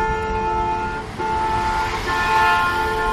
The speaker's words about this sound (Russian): Так, возмущенным гудком ростовские водители обычно реагируют на велосипедистов, даже если они соблюдают правила, едут справа от основного потока движения.